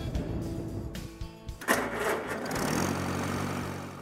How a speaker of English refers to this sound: My wife likes to drive it because it's easy driving and uh, not too big and intimidating about a 9, 10 horse tractor designed to replace a one horse or two horse farm.